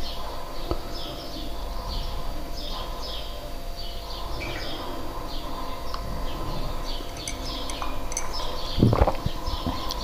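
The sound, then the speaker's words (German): Birds chirp and twitter repeatedly, heard through open windows, short bright calls scattered over a steady background hum of outdoor air, with a brief louder knock near the end. “hört ihr ein bisschen die Vögel zwitschern mal wieder. Denn die Fenster sind ja alle auf.”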